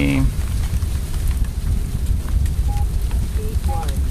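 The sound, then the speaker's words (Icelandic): Steady rain patters and hisses outside throughout, a dense continuous wash with scattered drips, while a few short electronic beeps chirp faintly over it. “Heyrum að það er regning uh, úti”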